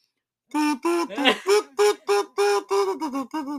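A toad croaks about ten times in a quick, steady run of harsh, nasal calls, loud and close, with no one talking.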